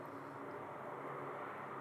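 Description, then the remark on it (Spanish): A steady, loud engine roar from a helicopter passing overhead, a dense continuous drone with no voices. “Mi helicóptero presidencial ha venido por mí.”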